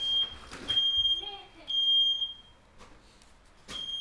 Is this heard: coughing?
no